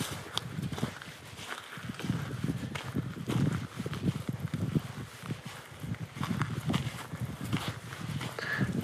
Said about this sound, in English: I want you to listen to what it sounds like as I walk. And try to imagine where I am. That's actually snow that you hear me stepping on right now. Listen as the sound changes as I walk over to an area that doesn't have snow.